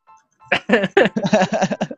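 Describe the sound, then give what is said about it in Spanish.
A loud electronic melody of the birthday song Las Mañanitas plays in quick, bouncy notes, starting after a brief faint tone and carrying on steadily without any talking over it. “Las mañanitas de su”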